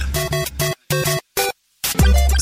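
A short, bright electronic jingle, the contest signal of the RTS radio station: a quick burst of harmonic tones in several punchy stabs with brief silent gaps, ending on a fuller low-heavy chord. Loud, no talking.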